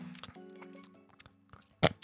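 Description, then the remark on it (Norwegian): Someone chews a mouthful of jelly candies from a mixed candy bag, as many as possible at once, with soft sticky smacks and clicks under a muffled, closed-mouth hum, then two sharp, loud bursts near the end. “Putt dem, så mange av dem som mulig inn i munnen, og tygg dem samtidig.”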